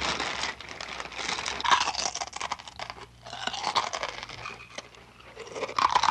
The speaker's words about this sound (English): Crunch, crunch, crunch, crunch, crackle, crunch. Someone or something turned the knob. Out came Mr. Muntz crunching a mouthful of potato chips.